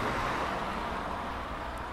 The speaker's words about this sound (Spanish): Vaya, ahora van a pasar por esta calle todos los coches del mundo.